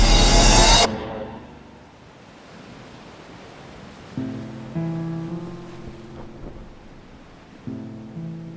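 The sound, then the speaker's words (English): Steady rushing wash of ocean waves, heard while sailing across them at sunset, fills the scene after a brief loud burst at the start, with sustained low musical tones joining partway through. No one speaks. “The sun was setting on my hometown as I sailed towards my new home across the waves.”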